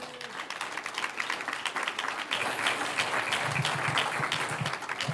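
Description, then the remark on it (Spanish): A church audience breaks into sustained applause offered to the Lord, a dense patter of many hands that swells after a couple of seconds and holds steady, with faint voices murmuring underneath. “Un aplauso al Señor.”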